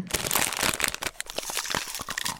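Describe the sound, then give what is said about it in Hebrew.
Continuous crunching of Bissli, a crunchy snack, mixed with crinkling of a plastic wrapper, dense irregular crackles filling the whole moment with no one talking. “עכשיו אני אוכלת ביסלי.”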